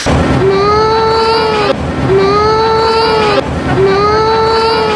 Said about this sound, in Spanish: Y había cuatro frikis muy malamente disfrazados que lo único que consiguieron, y lo que vamos a ver es un llanto real de niño, es hacer llorar a las criaturas.